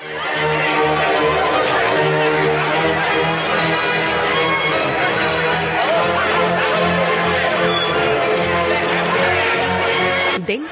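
A loud, dense crowd of alarmed bank customers clamors continuously inside a bank, demanding to withdraw their money, many overlapping voices shouting and talking at once in an agitated, unbroken wall of sound that persists for the whole stretch.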